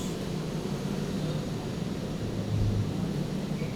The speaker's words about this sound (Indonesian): melihat pesawat terbang tinggi, tinggi sekali. Aku akan memotretnya untukmu.